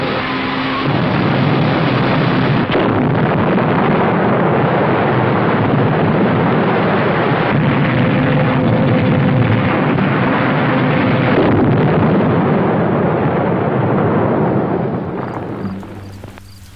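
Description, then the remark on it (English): A massive, continuous explosive roar as the steel walls of a huge prison beneath the sea shatter, with deep rumbling and crashing debris that stays loud for about fifteen seconds before fading away. Nobody speaks. “See it shatter the steel walls of its mammoth prison beneath the sea.”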